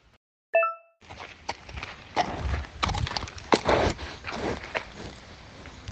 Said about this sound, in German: So, das war Pferdeschniefen ASMR.